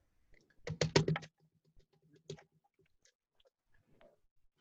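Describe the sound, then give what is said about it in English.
Ice cubes clatter into a Masters 2020 cup in a quick, rattling burst, then a smaller clink follows a moment later, with a few faint ticks settling afterward. Fairly loud, with no voices. “I'm gonna put a little ice in there.”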